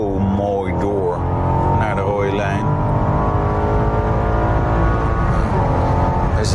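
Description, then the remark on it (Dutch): A powerful 4.4-litre V8 car engine of about 600 hp roars under full acceleration in fourth gear, its pitch climbing steadily through a gear before a brief dip and rise again. The engine is loud, with a voice talking over it. “Oh ja, in zijn 4 haal ik even vol door de auto met 600 pk.”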